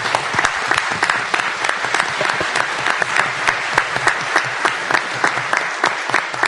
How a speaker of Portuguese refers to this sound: Vamos receber um aplauso.